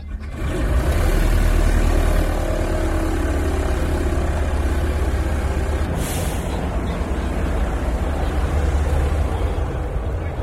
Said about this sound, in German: Also, ich sitze zwischen den Piloten. Dann gibt es ein riesen Zischen und Fauchen und, und, und Spucken und Ächzen. Das ist das Anlassen der Motoren.